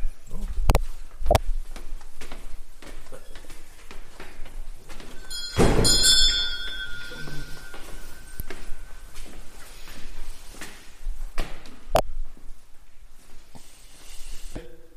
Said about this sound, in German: Die Maschine wird mit Dampf angetrieben. Dieser Dampf wird im Kessel produziert. Ja, Wasser wird also zum Kochen gebracht, strömt also über diese Leitungen in den Zylinder und drückt den Kolben nach unten.